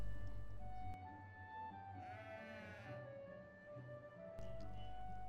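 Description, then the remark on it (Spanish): A sheep bleats once in a long, wavering cry near the middle, set against a steady low background hum with no one talking. “Me acerqué un poco más a ellos y se mantenían en movimiento, ya que no había pasto para las ovejas.”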